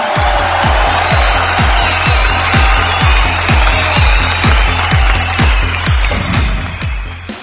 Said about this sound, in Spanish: Aplausos, aplausos.